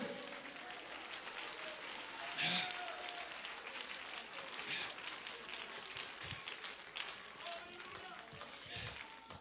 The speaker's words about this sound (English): There's hope in the church today. Come on, clap Congregation, clap your hands.